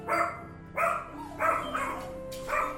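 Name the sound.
small dog barking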